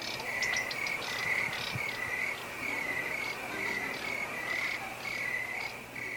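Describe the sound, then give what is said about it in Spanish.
Crickets chirp steadily throughout, a shrill, pulsing trill repeating in quick bursts over a constant hum of night ambience, with no voices present. “Todavía no llegan los grillos. Ahí está.”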